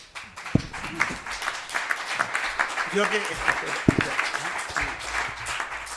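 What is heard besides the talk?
audience applause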